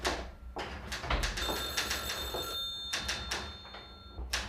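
A telephone rings with a bright, sustained electronic tone lasting a few seconds as a man calls again the next day, surrounded by scattered clattering and rustling bursts; nobody speaks.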